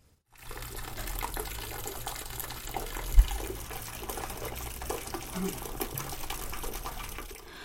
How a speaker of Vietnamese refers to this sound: Sau khi đun nước sôi, người ta chuẩn bị một tấm vải trắng lớn, rồi đổ đậu vừa xay lên trên và đổ nước sôi lên vải, thì nước đậu trắng sẽ chảy xuống vạc qua tấm vải lọc này.